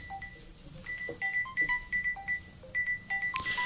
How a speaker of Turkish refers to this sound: Senin telefon mu hocam? Evet.